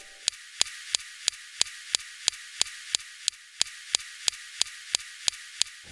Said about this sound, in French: la façon dont la pierre craque quand le laser la découpe